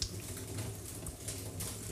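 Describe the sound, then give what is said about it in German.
Rinse water pours steadily out of a bowl of rice for a couple of seconds as the bowl is held with one hand and the water slowly tipped out, a continuous splashing trickle with small surges, no voices. “So, dann gehe ich wieder zum Reis, rühre einmal kurz rum und ja jetzt, vorsichtig, ich halte die Schüssel mit einer Hand, du langsam das Wasser ausgießen”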